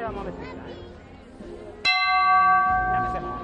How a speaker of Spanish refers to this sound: solapan los sonidos. Campanas de trono.